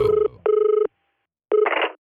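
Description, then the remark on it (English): A telephone rings for a radio prank call to a prison guard, in loud electronic trilling bursts, two close together and a third after a pause, with a harsher burst of noise at the end. “Michael even used his one phone call for his hit radio show.”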